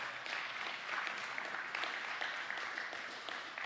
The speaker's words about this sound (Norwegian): Tusen takk for den jobben dere gjør. Uten dere kvinner så ville vi vært håpløse. Ja, gi dem en applaus.